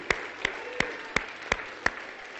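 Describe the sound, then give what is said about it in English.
A church audience applauding the Lord on a Sunday morning, with six sharp, evenly timed claps ringing out in a steady beat over a continuous wash of crowd clapping and noise. “Now give the Lord your best hand on a Sunday morning.”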